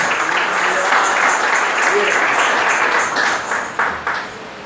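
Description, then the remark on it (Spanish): Sustained applause from a crowd, given to the Lord one morning, a dense steady wash of clapping that holds loud for several seconds before thinning and tapering off toward the end. “Le van un aplauso al Señor, por favor, esta mañana.”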